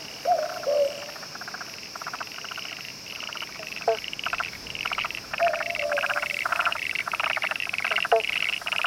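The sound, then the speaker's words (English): A chorus of frogs by a nearby creek calls in steady, overlapping pulsed trills, joined by a few short whistling notes, with a constant high insect buzz underneath; a dense, continuous evening soundscape. “There is a creek nearby. Can you hear the frogs? It's like an evening chorus.”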